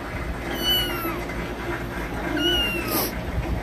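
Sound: cat meowing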